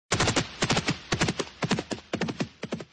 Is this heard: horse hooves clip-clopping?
yes